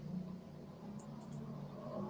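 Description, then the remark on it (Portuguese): Motorcycles passing by outside, heard as a steady engine drone that rises and falls slightly throughout, with no voices present. “Olha aí, agora é moto sem parar.”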